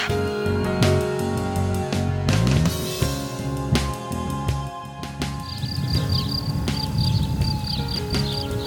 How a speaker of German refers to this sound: Hör mal, die Grillen.